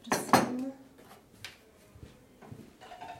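Dishes clink as coffee and water are served: two sharp, bright clatters at the start, then lighter scattered taps and knocks of cups and saucers, with faint murmuring in the background.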